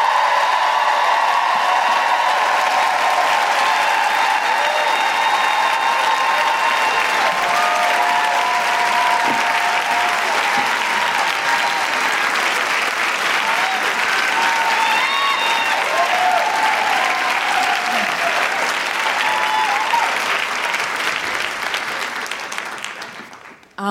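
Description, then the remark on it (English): A crowd applauds steadily and loudly for about twenty seconds, with scattered whoops and cheers rising over the clapping before it fades out at the end, welcoming an introduced guest. “Please put your hands together and make incredible woohooing noises”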